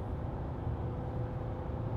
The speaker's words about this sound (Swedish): Det är kanske för att vi sitter, vi sitter och åker bil och det är mörkt. Det är mörkt, och, så, men, eh, det är mörkt och snart natt.